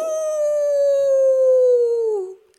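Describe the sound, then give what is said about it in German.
A single voice imitates a wolf howl: one long, steady wail held for about two seconds, its pitch sinking slowly before it breaks off, fairly loud with nothing else heard. “heulten die anderen.”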